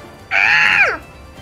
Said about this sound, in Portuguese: Vocês percebem que o, o Sparrow chega aqui e ele dá um grito.